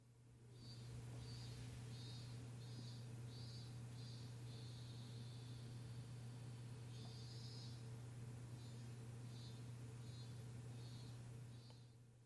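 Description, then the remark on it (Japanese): Cicadas buzz in a steady series of short, repeated pulses with one longer drawn-out call, fairly faint over a constant low hum. No one speaks. “ちょっとその前に、今、セミが鳴いていますね。”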